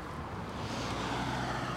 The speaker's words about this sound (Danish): Lige nu kan vi jo høre, at der bliver kørt her i baggrunden, både på motorvejen derude og på vejen lige her ved siden af.